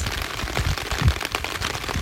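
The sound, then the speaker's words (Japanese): Steady outdoor rain patters with dense, crackling taps, while low gusts of a moderate wind rumble underneath. The sound is continuous, with no voices. “外で撮ったので環境音(雨音、風の音)があります”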